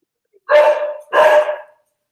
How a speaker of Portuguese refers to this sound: Ai, Tem alguém latindo aí.